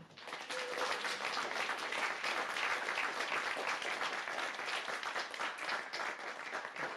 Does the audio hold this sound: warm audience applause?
yes